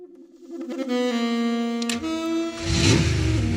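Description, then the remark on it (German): A yellow car's engine revs steadily, its pitch climbing, then a gear shift and a louder surge of noise as the vehicle pulls away into oppressive heat. No one speaks. “Tom probierte die Gänge durch und schon schossen wir in die drückende Hitze hinaus”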